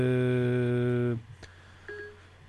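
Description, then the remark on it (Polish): A Siri activation chime on a phone: a long, steady, buzzy electronic tone for about a second, then a quiet pause and a short, soft two-tone beep near the end. “jakby to powiedzieć, włączyło mi się Siri, nie wiem w telefonie właśnie.”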